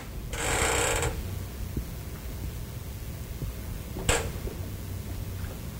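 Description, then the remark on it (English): A chair scrapes or creaks for about a second, fairly loud, followed after a quiet pause by a short, sharp creak or knock. No one speaks. “I hope that's the chair. It is.”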